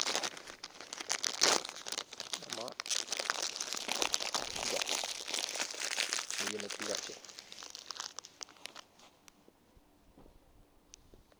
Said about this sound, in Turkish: Kruvasanımızı da açalım. Ya, dediğimiz de böyle tereyağlı falan Fransız kruvasan değil yani bildiğin. Araba şeyden alınan, bakkaldan alınan çikolatalı kruvasan.